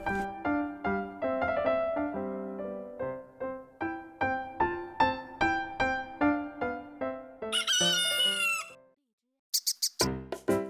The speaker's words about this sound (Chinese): 狗和公鸡是好朋友，每天早上，公鸡都起个大早，叫醒森林里的动物们，让大家起床，呼吸新鲜空气，锻炼身体。